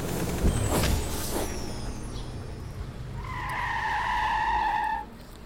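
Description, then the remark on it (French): A large bus materialises with a rumbling, whooshing rush in a small, quiet side street in central Paris in daylight, then its brakes squeal in a long, loud, high-pitched screech as it grinds to a halt, with no voices. “Le bus se matérialisa dans une petite rue discrète du centre de Paris.”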